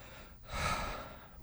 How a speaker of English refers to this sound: breathing in and out, breathing because I get tense sometimes going in the house, knowing I'm going into a potential buzz saw, and they I need to be on point.